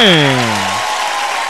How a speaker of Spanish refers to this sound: Aplauso para usted.